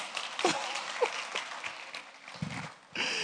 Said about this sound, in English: Your role is not to criticize him, but to encourage. That's why you clap. Only one person.